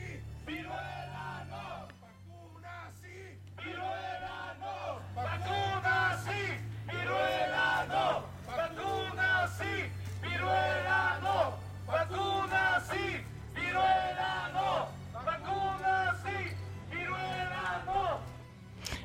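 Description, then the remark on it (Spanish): A crowd of activists at a protest raising awareness about monkeypox shouts in repeated rhythmic bursts, loud chanted calls rising and falling roughly every second, with a steady low hum running underneath throughout. “Em, para ilustrar eh, la resistencia que están armando a este decisiones políticas, pues quiero que regresen conmigo al 21 de octubre, cuando yo fui a una protesta de activistas eh, que están tratando de fomentar conciencia sobre la viruela de mono.”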